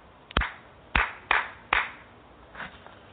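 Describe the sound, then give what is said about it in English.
Sharp hand claps, four loud ones in an uneven rhythm followed by a softer fifth, each a crisp slap with a brief ringing tail and no voices, done as a clapping energy clearing. “I'm going to do a little clapping clearing on that one.”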